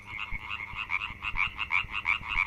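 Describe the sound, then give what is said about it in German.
A chorus of frogs croaks steadily, their rapid overlapping calls pulsing in a continuous rhythm, moderately loud, with no voices present. “Die Chance für die Frösche, um sich in dem Frühling fortzupflanzen, die ist nämlich ziemlich schlecht gestanden.”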